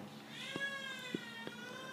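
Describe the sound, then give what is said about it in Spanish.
The speaker's baby daughter cries in a steady, drawn-out wail with no break for breath, heard fairly softly. Nobody speaks. “Y by the way, si escucha un llanto de, un bebé, que mi bebé está ahí llorando.”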